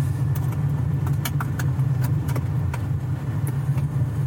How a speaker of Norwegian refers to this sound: Vi kan også si at vi er på vei til Oslo nå fra Hvaler, så det er en lang biltur.